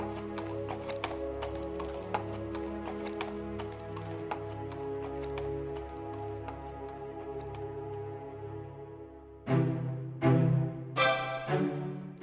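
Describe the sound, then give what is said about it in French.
Steady, rhythmic clip-clop of horse hooves as Bluebeard's carriage pulls away on his journey, over a sustained tonal backdrop, ending with a few louder, heavier bursts of sound. “Après l'avoir embrassée, Barbe Bleue monta dans son carrosse et partit pour son voyage.”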